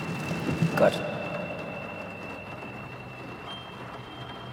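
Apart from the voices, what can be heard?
heavy rain pouring down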